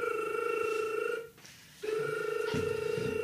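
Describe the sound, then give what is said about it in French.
A telephone ringback tone as the control room of Radio FMR dials a listener's number: two steady electronic ring bursts with a short gap between them, loud and continuous with no voices. “Maestro, vous qui êtes à la régie, vous avez composé le numéro.”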